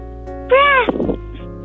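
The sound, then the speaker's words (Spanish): A young child's voice gives a single short, high, rising-and-falling meow like a kitten, followed by a brief raspy tail, over a quiet background hum. “Es como un, gatito que estaba peleando con el perrito.”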